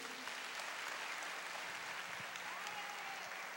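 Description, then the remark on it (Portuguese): A crowd claps steadily for Jesus, dense applause at an even, sustained level, with faint voices and a brief rising call audible underneath. “Você pode aplaudir a Jesus aí.”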